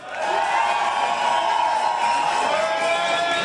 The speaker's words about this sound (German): Beachbereich, ja, also die Straße hier vor der Tür ist die Logenstraße, das ist im Prinzip der Fluss, an dessen sandigen Ufer sich viele Menschen versammelt haben. Auch die können wir kurz heute Abend hören.